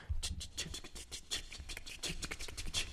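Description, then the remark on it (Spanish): A voice imitates cymbals with a rapid, rhythmic run of crisp, hissing 'ts' bursts made with the lips and tongue, fairly quiet, with no talking. “Entonces este, empieza a hacer este, este, esta técnica que es este, hacer los sonidos de los platillos que suenan de...”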